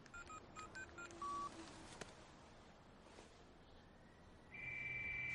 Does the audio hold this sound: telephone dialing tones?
yes